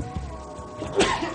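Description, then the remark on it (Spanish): A single short sneeze bursts out, sharp and breathy, breaking an otherwise quiet stretch with a faint steady hum underneath. “Salud.”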